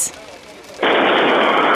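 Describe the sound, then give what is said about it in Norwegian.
After a brief quiet moment, a propane gas tank at the Drammens Is factory explodes loudly nearby during the fire in the Bandidos building in Nybyen; the blast turns into a sustained, wide roaring rush of noise that carries on to the end. “Nok en eksplosjon i Nybyen her. Jeg må flytte meg lenger unna, for dette her kjente jeg faktisk lufttrykket.”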